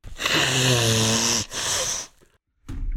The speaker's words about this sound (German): Das ist ein langer Schnäuzer, ey. ja, Ja, ja, das ist ein sehr langer Schneuzer.